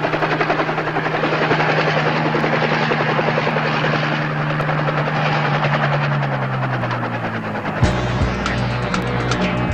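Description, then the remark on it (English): An unarmed medevac helicopter flying in roars steadily with a dense, chopping rotor beat and a low droning hum that drops in pitch near the end as a higher whine cuts in. No voices. “Why would Byrne White send us a medevac?”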